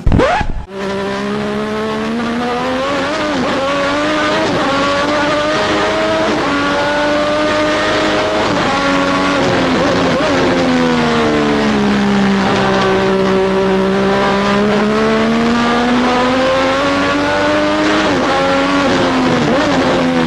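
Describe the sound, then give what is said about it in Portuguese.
A Formula 1 race car with a Honda V6 engine in a Lotus roars loudly and steadily for the whole stretch, its pitch climbing and dipping as the revs rise and fall, with no voices present. “quando testa o primeiro motor dele V6 Honda na Lotus, ele deu uma volta e voltou pro box”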